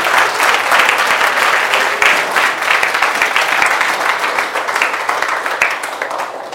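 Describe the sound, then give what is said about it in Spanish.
An audience breaks into sustained applause, a dense, steady wash of many hands clapping at once, loud and continuous for several seconds with no voices standing out. “Apláudale al Señor.”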